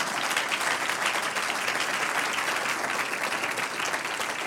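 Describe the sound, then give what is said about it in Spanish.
An audience gives a round of applause in praise of God, many hands clapping in a dense, continuous patter at an even loudness throughout, with no voices standing out above it. “Vamos a dar un aplauso de alabanza.”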